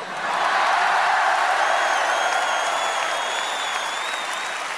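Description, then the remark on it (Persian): A huge crowd of thousands of fans at a concert in Wembley Stadium, London, in 1986, roars and applauds continuously, a dense wash of clapping and cheering that swells quickly and holds steady, with a few high whistles piercing through. “در جریان کنسرت بزرگشون در استادیوم ومبلی لندن هزاران هوادار”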